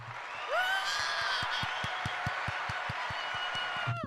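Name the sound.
applause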